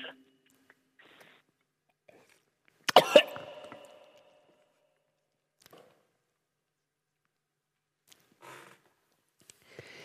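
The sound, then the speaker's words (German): A harsh cough bursts out with a wet, rattling throat-clearing as mucus is hawked up, trailing off, followed by quiet pauses and a few faint snorting or clearing noises at the end. “Es mag für den einen oder anderen ein nicht ganz angenehmes Geräusch sein, wenn der Schleim hoch möchte, aus, der, aus dem Magen rein in den Kreisel der Natur.”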